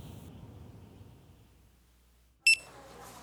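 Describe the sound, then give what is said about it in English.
A kitchen timer at Best Burgers USA gives one short, sharp electronic beep, the cue to flip the meat, loud, breaking a stretch of quiet low background rumble. “My job was to wait for the beep and then flip the meat”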